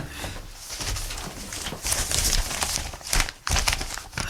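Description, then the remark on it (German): Paper rustles and crinkles in uneven bursts as a large stack of paper sheets in a cell is shuffled and handled continuously for a few seconds, with a couple of sharper swishes near the end. “Ja, und was ist das da für ein Papierstapel? Bergeweise Papier hier.”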